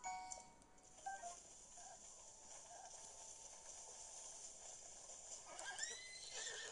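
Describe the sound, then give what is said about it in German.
A horse that is being tamed whinnies in two shrill, quavering bursts, a short one near the start and a longer one toward the end, over a steady background hiss with no talking. “Scheiß Pferd. Junge, dreht doch nicht aus.”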